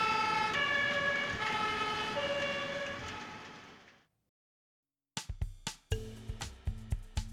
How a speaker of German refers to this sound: Nun ertönen sogar schon Feuerwehrsirenen irgendwo in Schabeljak.